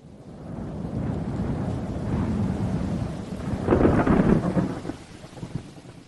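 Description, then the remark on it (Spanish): A rain and wind storm at night in Mexico City roars steadily, a dense low rumbling wash that swells to its loudest with crackling bursts just past the midpoint, then eases off toward the end. No voices. “La lluvia y el viento pararon de repente.”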